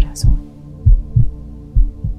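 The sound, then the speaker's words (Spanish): A steady heartbeat thumps in deep, muffled pairs, fairly loud over a low hum, with a brief faint hiss near the start. “escucha el latido de tu vida, de tu existencia.”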